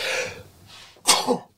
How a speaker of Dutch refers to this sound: Zo. Gezondheid. Nog net voor de nies.